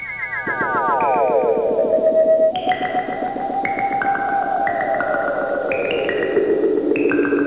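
Early electronic music composed by pioneers of electronic music: warbling, gliding synthetic tones that step between held pitches, thick with echoing repeats. It plays loud and continuous, with no voices.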